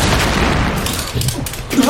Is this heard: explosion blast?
yes